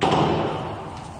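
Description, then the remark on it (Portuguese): A single loud gunshot cracks out in Kherson, Ukraine, a city near the Black Sea held by the Russian army, followed by a long echoing tail that slowly fades, with no voices present. “Esse morador tentou olhar pela janela e se escondeu quando ouviu um tiro.”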